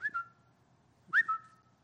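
A phone's Twitter notification whistle sounds twice, about a second apart: each a short, bright chirp that slides up and then holds a steady tone before fading, heard clearly with nothing else around it.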